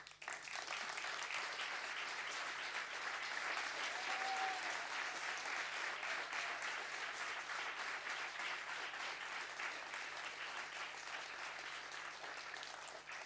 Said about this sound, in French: je pense que c'est la plus merveilleuse personne de l'histoire de l'univers et qu'elle mérite son ovation.